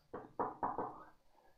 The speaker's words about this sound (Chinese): 我没说话，直接上前敲门。